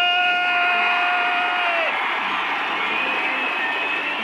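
A large audience cheers and applauds a band in one loud, steady roar for the full four seconds. A high, sustained shout or whistle rides over the crowd early on, then slides down and drops away.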